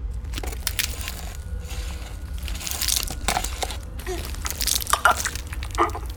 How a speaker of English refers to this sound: Moving on to the vital organs. I need you to hold the cadaver down while I make an incision to open the body cavity.